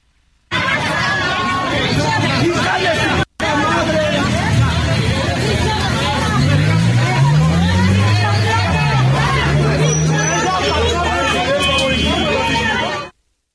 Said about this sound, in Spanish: se ausentaron de la sesión y afuera vamos a escuchar el ambiente que hay en estos momentos ahí en el Congreso de la Ciudad de México.